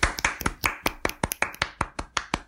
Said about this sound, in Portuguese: Então, assim, palmas pra série, porque nisso eles arrasaram.